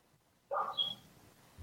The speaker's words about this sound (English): My dog's being an asshole in the background. I'm sorry.